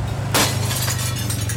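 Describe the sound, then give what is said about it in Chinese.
A sudden crash of glass shattering as a motorcycle bursts into a villa, followed by a spray of bright, tinkling fragments that keep scattering for about a second over a steady low rumble. “随着玻璃的碎裂，野狗呢骑着他的机车闯进了别墅的屋内，来到了大厅。”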